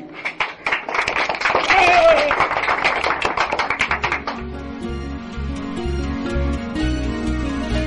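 An audience claps and applauds children in a dense, loud burst of rapid hand claps for about four seconds, with a brief shout in the middle. Then it stops and soft, steady music continues.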